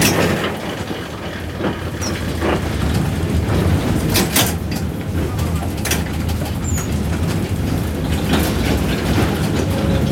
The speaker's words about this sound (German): rumpelt ordentlich in der Straßenbahn von 1937. Damals fuhr sie in Hamburg. Jetzt dreht sie in der Nähe von Kiel ihre Runden am Museumsbahnhof Schönberger Strand.